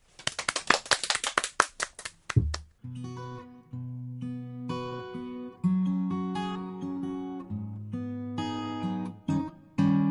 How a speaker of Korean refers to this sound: 박수